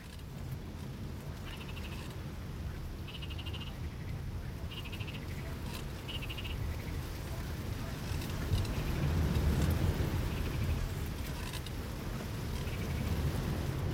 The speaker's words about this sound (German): Hier mischt sich das Quaken der Frösche mit dem Geräusch der Brandung.